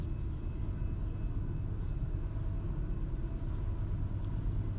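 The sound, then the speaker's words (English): A train rolls past with a heavy, steady low rumble that holds at an even loudness throughout, with no voices over it. “I'm going to let this train pass, but I'm going to come back to you.”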